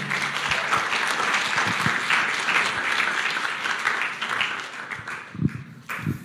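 A crowd in Hamburg applauds warmly to welcome two guests onto the stage, steady dense clapping for several seconds before thinning out near the end, with a few stray claps and faint voices.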